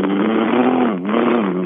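A motorcycle engine with an unstable muffler revs loudly and steadily through the rough, sputtering muffler, its pitch sagging briefly midway before climbing back up. It is continuous, with no talking.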